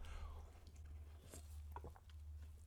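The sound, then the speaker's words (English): A can of sparkling water cracks open with a quick hiss, followed by a few faint fizzy pops and drips, quiet over a low steady hum. “As always, I've got a sparkling water right here. Ready?”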